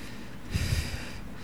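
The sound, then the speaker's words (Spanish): One short, breathy exhalation, a soft rush of air lasting about a third of a second against faint background hiss, with no talking. “Porque mira una respiración.”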